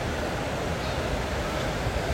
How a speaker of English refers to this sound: So as I'm talking to you today, I'm being very present, um, listening to the waves, seeing this scene as I'm doing a podcast on the sand at the beach that I've been to a thousand times because I grew up here